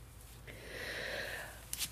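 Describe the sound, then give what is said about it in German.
A dog on a hike moves through grass, a soft continuous rustle with sniffing, ending in a couple of sharper brushing crackles. No one speaks. “Jetzt hörst du sie gerade wieder hier durchs Gras rascheln.”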